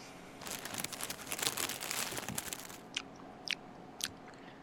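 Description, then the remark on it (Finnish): Someone bites into crisp food filled with chicken, BBQ sauce and cheese and chews, a dense run of crackly crunching for about three seconds, then three short, sharp crunches spaced apart as the chewing slows. No one speaks. “syö, syö itse vaan, itse vaan.”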